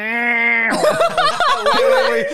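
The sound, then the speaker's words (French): A voice imitates the call a male insect makes with the tymbals on its abdomen, starting with a steady, nasal humming drone, then breaking into a rapid, choppy run of buzzing, warbling vocal pulses, fairly loud. “Alors, ben, ce qui va se passer, c'est le mâle va utiliser ses outils, ses cymbales. Ils ont des petites affaires sur leur abdomen qui vont mais vraiment, ça sonne plus comme.”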